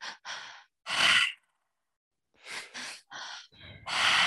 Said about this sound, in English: there's a breath called the triactive breath and so that's into the belly up into the chest and out through the mouth so it sounds like this